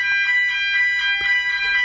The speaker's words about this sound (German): Also ist der Feuermelder genau vor meiner Tür, aber ich sehe kein Feuer. Was soll ich machen?